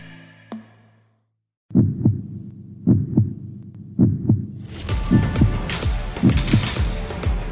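A loud, close heartbeat sound effect thumps in a steady double-beat rhythm, about once per second, with a bright musical layer swelling in behind it halfway through.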